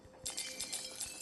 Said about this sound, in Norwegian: Det er lyden av jeg som tapper på iPaden min. Fjerner små firkanter fra en gigantisk kube.